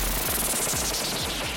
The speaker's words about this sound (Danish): Den forkerte lyd lyder sådan her.